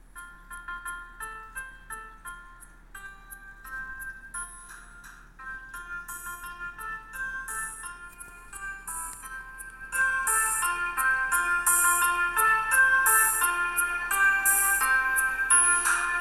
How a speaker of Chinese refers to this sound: 是不是很熟悉啊？这是《The Whale on the Bus》的歌曲旋律。